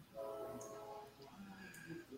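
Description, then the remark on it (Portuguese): A train horn sounds a sustained, multi-toned blast over low rumbling, then fades into the continuing noise of a train moving along the tracks. No one speaks. “Vocês estão ouvindo o trem do progresso chegando, ó?”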